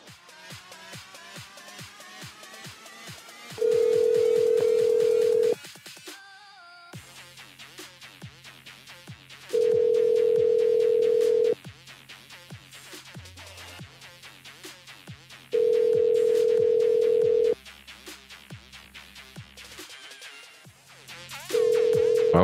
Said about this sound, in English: welcome to the ringing show, everyone, where you get to hear lots of different ringtones, like this one. Ring. Ring, ring, ring, ring, ring.